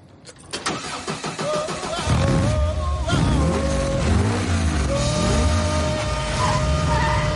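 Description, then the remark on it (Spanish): A few sharp clicks, then the engine of a small blue convertible Volkswagen Karmann Ghia cranks and catches, settling into a loud, buzzy idle that revs up and down in repeated swells as the car reverses out and turns, skidding. “Sube a su pequeño Volkswagen Carmangia descapotable azul.”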